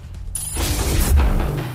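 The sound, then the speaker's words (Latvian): A garage door rumbles and rattles as it slowly closes, a steady low mechanical grinding with a metallic whir that builds over a couple of seconds, with no voices. “Garāžas durvis lēnām, lēnām varam ciet un vēlam visiem veiksmi, vai ne?”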